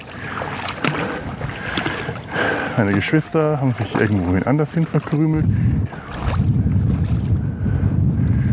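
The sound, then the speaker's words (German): Steady sloshing of someone wading through shallow seawater at a beach, mixed with rushing wind noise on the microphone, while a person talks over the splashing. “Das ist eigentlich auch ein schöner Gedanke, durch ein Meer zu warten.”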